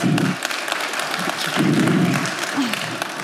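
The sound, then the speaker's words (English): Sustained applause from an audience, a dense wash of many hands clapping at once, steady and fairly loud throughout with low murmuring voices underneath, as a speaker is invited onto a stage. “Big round of applause.”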